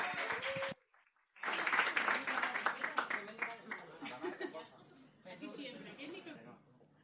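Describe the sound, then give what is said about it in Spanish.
An audience at a poetry slam applauds loudly as the first participant of the first elimination round is introduced, a dense, steady patter of many hands, breaking off briefly near the start, then swelling back and fading slightly, with shouts and chatter mixed in. “¡Aplauso fuerte!”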